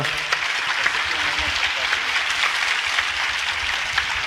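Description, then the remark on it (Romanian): Sustained audience applause welcoming a doctor as he approaches the stage, a dense steady wash of many hands clapping at moderate loudness for several seconds, with no pauses or voices standing out. “să primim cu aplauze dacă...”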